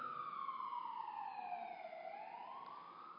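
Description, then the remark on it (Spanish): An ambulance siren wails loudly and steadily, its tone sliding down and then climbing back up as it passes by, with no voices over it. “ahorita que pase la ambulancia”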